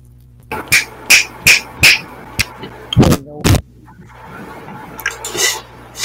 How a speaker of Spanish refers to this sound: A ver, sopla el micrófono.